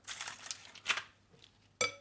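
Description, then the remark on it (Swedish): Ice cubes clatter into a glass of a glögg drink with lingonberries in a short jumble of clinks, followed by a sharper knock near the end that leaves a brief glassy ring. No one speaks. “Och så is. Det ska vara is, iskallt.”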